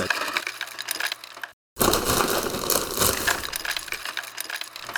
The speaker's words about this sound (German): Also, wir füllen jetzt erstmal die Gläser mit Eis. Ja, Eis.